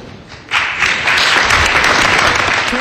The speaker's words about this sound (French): monde applaudissait à l'époque, c'était le, retour après les folies du, bulletin, finalement, du renouveau pédagogique.